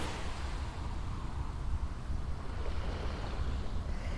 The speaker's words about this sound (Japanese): ただいま湘南の海岸から波の音をお届けしています